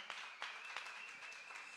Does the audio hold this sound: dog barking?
no